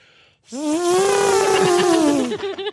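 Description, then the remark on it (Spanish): A person's voice imitates an elephant's trumpet: one loud, sustained, brassy call lasting about two seconds, holding a steady pitch before trailing off in a few breathy bursts. “El elefante, como elefante.”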